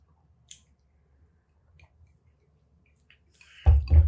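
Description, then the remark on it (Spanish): Faint clicks and small wet sounds of a shot of liquor being poured, then a loud, rough gulp and exhale as the shot is knocked back at the very end. No one speaks. “Yo creo que hay ah, que echarse otro shot, le damos el shotcito. Ahí va uno.”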